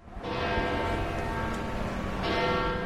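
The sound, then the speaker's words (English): The large church bells of St. Peter's in the Vatican ring out together at 10 o'clock on a crisp, sunny morning in a full, sustained peal, their overlapping tones and long resonant hum filling the air with a fresh strike swelling in near the end. “The bells of St. Peter's chime at 10 o'clock on a crisp, sunny morning”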